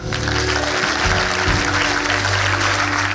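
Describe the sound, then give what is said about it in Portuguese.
Steady crowd applause for the band at a Song Portugal meeting, dense and continuous for a few seconds, with a low sustained instrumental hum underneath. “Uma salva de palmas à nossa banda.”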